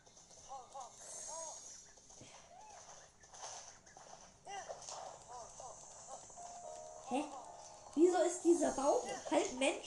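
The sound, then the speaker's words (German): Horse hooves clip-clop in a steady, repeated rhythm, growing louder and busier toward the end, with some voice-like sounds mixed in. “Komm her, Pferd.”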